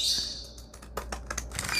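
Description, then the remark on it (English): Scissors snip an angled curve, starting at the bottom, through a piece of paper folded in half, in a quick run of crisp, papery cuts, with a soft high hiss at the start and no talking. “You can use straight scissors, you can use fancy scissors, totally up to you.”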